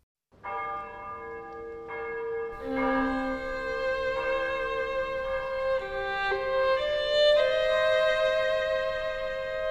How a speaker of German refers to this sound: Die Glocken in ganz Parma läuten.